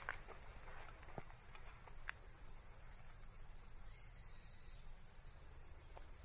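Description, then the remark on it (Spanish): Steady outdoor ambience in a small stretch of forest on the way to a cable car, with a constant bed of insect and cricket buzzing, faint scattered clicks and rustles, and a low background rumble; no one speaks. “Hay un trocito hasta el teleférico aún, pero la verdad es que este trocito de bosques es una pasada, ¿escucháis?”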